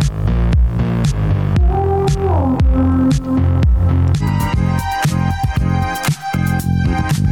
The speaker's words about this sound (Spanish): Una canción que navega entre lo electrónico y lo disco.